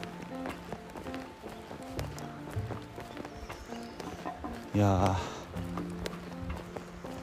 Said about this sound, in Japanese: おお来た鹿だ今聞こえたかな音ピッてピッて言ったでしょ鹿だな走ってった